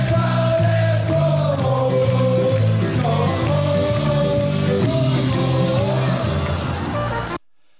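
A loud, continuous song by Brann supporters about a football player, many voices singing together in a steady melodic chant for about seven seconds before cutting off abruptly.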